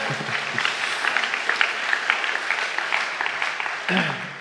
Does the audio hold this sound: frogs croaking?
no